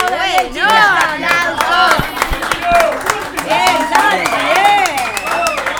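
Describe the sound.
An audience claps in a dense, steady burst while many voices shout and cheer over it, loud and continuous for several seconds.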